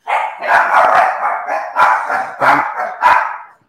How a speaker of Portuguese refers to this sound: calma que as minhas filhinhas estão latindo. Não façam barulho que elas se estressam.